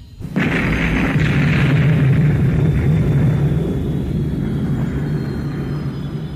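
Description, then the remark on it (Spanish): A sudden, loud explosion bursts in and gives way to a deep, roaring rumble that stays heavy and steady for several seconds: the eruption of Mont Pelé, with a blinding flash as the top of the crater tears apart. “Con un enseguecedor destello, seguido de una horrísona explosión, la parte superior del cráter literalmente se desgarró.”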